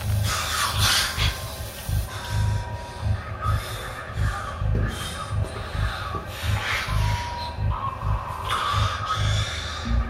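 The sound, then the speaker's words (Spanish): Heavy, agitated breathing from an upset woman, with rapid snorting gasps, loud, repeating in quick uneven bursts throughout with faint shuffling movement underneath. “Sé que estás alterada. Pero intenta contener la respiración.”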